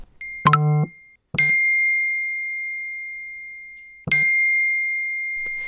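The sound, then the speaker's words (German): Three electronic notification chimes from a mobile phone being switched back on in a car sound clear with no talking: a quick rising tone, then two bright pings a few seconds apart, each leaving a steady high ringing tone that slowly fades. “Im Auto mache ich mein Handy wieder an.”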